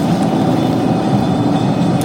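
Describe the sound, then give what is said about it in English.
Steady, loud low-frequency rumble and road noise from inside a car moving at highway speed on Highway 17 toward Sudbury, a constant drone with no talking. “Yes, and uh, we're on Highway 17.”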